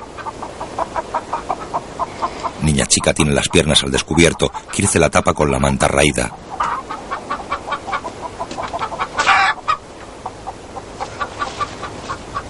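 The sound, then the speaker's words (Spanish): Hens cluck in a burst of repeated, fairly loud calls, then quieter clucking continues beneath a person speaking, as the dirt of hens and turkeys is cleaned up with a rake. “Azarías limpia con un rastrillo la suciedad de gallinas y pavos.”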